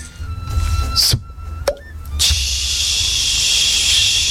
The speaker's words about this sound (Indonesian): Goreng ikan asin.